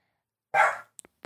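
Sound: dog barking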